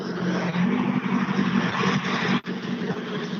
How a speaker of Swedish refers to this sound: här har vi ju en riktigt snabb kille som heter Pontus Florin som kör Sollets gamla R3 Honda